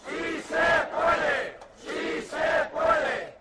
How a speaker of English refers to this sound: This recent protest is in Valencia, right outside the home of a member of parliament. About 100 people are protesting the government's failure to rein in evictions, even as Spanish banks got rescued to the tune of 40 billion euros.